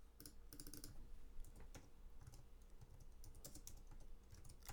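Rapid typing on a computer keyboard while searching online for cartoon sound effects, a steady stream of crisp key clicks in irregular bursts, with no voices over it.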